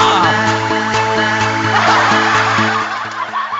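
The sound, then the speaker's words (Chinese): A dense wash of applause from a large audience after a tongue-twister performance, steady and loud throughout, over a sustained low tonal drone, easing off slightly in the final half second. “呃，非常好，这个雷鸣般的掌声， 雷鸣般的掌声，特别厉厉害是吧？”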